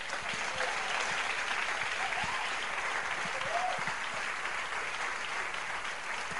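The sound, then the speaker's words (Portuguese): A crowd applauds the Lord steadily for several seconds, dense clapping at a constant level, with a few faint voices calling out underneath. “Quantos aplaudem ao Senhor esta noite?”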